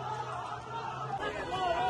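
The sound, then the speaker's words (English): An excited crowd celebrating, many voices chattering and calling out at once in a dense hubbub that holds steady and swells slightly toward the end. “Look at the excitement, look at the celebration.”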